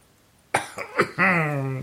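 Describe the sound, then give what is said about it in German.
Three quick, harsh coughs from a non-smoker with a cough and flu burst out after a moment of quiet, then trail into a drawn-out, hoarse voiced groan. “Nichtraucher, Husten und Männergrippe, harte Kombination.”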